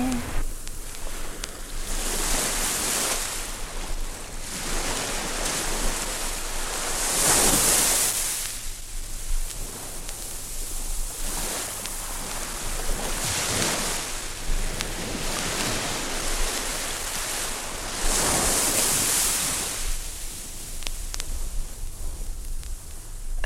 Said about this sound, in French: Installez le silence en vous, puis laissez-vous peu à peu envahir par le bruit de la mer. Devenez une plage qui se laisse caresser par la vague écumante.